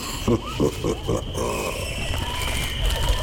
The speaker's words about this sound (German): Willkommen im dichten Dschungel.